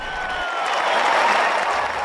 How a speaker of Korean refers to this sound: 오늘이 있기까지 너무도 오래 기다렸다는 듯 박찬호 선수의 점광 석화 같은 볼이 타자의 가슴 앞을 파고들 때마다 관중들의 환호는 플로리다 벌판을 뒤흔들었습니다.